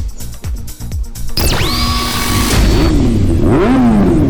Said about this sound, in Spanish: Sonidos de motores a la máxima potencia para pegar la vuelta.